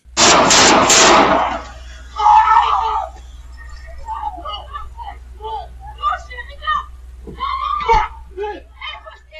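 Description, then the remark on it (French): A loud, rapid burst of several gunshots from a daytime shooting in Laval, recorded by a surveillance camera, rings out at the start, harsh and cracking, then fades as people's voices carry on talking over a low background hum. “Euh, c'est une caméra de surveillance donc, qui a capté cette scène. Donc, fusillade en plein jour à Laval.”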